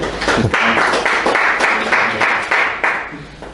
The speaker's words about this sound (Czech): Eh, přišli studenti do naší debaty, eh, kteří eh, si udělali čas ve svém volnu, což teda oceňuju, takže můžete si zatleskat všichni klidně.